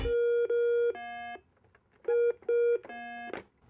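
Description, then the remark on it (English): A Simon electronic memory game beeping out a sequence of pure tones: two high beeps, a lower one, then the pattern repeats, loud, ending with a brief burst. “My portable gaming system, the Simon.”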